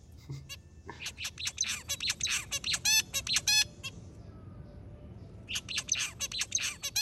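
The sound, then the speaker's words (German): A blackbird's melodic, high-pitched chirping song comes in rapid bursts of bright notes, with a brief pause midway before the song resumes, set against a low background rumble. “Er ist relativ hoch, auch nicht so allzu ein großer Vogel. Es ist so ein, ein, so ein melodisches Gepiepse.”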